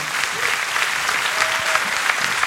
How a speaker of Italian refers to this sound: Ah, okay, fate un grande applauso.